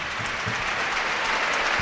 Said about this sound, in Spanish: 77 de partido, mira, escuchen, se retira Marca Guado, la Romareda aplaude. El chaval.